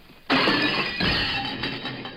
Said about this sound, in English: In about five seconds, a waiter's going to drop a tray of dishes. Five, four, three, two, one.